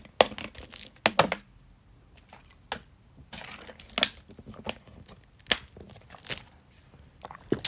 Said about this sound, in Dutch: En voordat ik dat ga doen, neem ik nog een slok van mijn water.